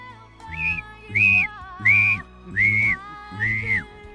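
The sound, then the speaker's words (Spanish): A series of five clear, sustained whistled notes in a steady rhythm, each slightly wavering in pitch, with a low humming tone underneath. “Empieza eh, a, silbar.”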